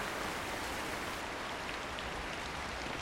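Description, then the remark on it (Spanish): A river rushes in a steady, unbroken hiss of flowing water, constant throughout, with no voices or other sounds, as a storm approaches. “Se trata del río donde jugaba don Teófilo, que comienza a escucharse por la inminente tormenta que se avecina.”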